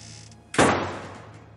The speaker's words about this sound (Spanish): Llegó a la puerta y la abrió, sujetándola desde dentro, y la cerró de golpe.